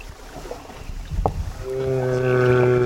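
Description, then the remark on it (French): A low, drawn-out song note of a migrating male humpback whale, picked up by a hydrophone about ten metres below the surface with the boat engine stopped, moans steadily through the second half, rich with harmonics, rising out of murky underwater rumble and a few faint clicks. “vous aurez peut-être reconnu la fameuse baleine à bosse. C'est un champ de mâle en pleine migration.”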